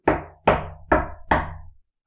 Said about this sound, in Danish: Men så bankede det på igen, dengang mere aggressivt.